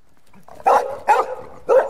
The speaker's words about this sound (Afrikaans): Skielik begin die gesin se hond blaf en om van hom af weg te kom, spring Lulu in die koorsboom, raaklings verby 'n skerp doring.